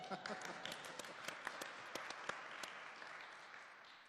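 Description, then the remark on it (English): An audience claps steadily for a worship leader being introduced, a dense wash of many hands with sharper individual claps popping out, fairly loud throughout and tapering slightly toward the end. “You can clap for him, yeah.”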